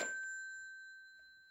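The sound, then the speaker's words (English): A telephone bell rings once, a bright metallic strike followed by clear ringing tones that slowly fade, with no voices. “Oh, let it ring. Let it go on ringing.”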